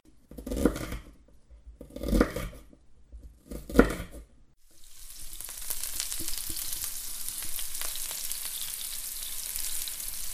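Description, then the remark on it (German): A few short scraping or stirring bursts, then food hits a hot pan and a loud, steady sizzle with crackling pops continues to the end as the food starts to burn. “Radio Helsinki kocht für euch. Kommt am 21. Februar ins Forum Stadtpark und lasst euch von uns bekochen. Pass auf, das brennt an.”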